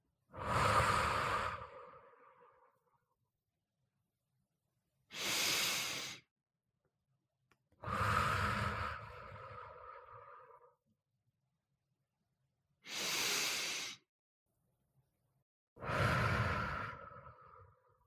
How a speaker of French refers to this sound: Voilà, t'es bien installé, je t'invite maintenant à fermer les yeux et à prendre quatre grandes respirations pour relâcher tous les muscles de ton corps.